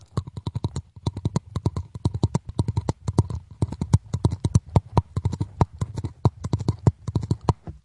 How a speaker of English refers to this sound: I would play the drums on my teeth.